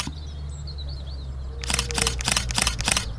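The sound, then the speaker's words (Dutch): A rapid burst of five or six sharp camera shutter clicks in quick succession, crisp, over a quiet outdoor background with faint birdsong chirping, while taking nature photographs in a field. “We nemen onze camera.”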